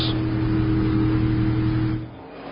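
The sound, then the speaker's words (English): A loud, continuous roar of stock car engines, including the No. 5 and No. 45 cars, racing hard on a track after catching the No. 20 car of Christopher Bell, a dense droning wall of motor noise that eases slightly in volume near the end. No voices are heard. “That hard racing by the five and the 45 now has caught up the 20 of Christopher Bell.”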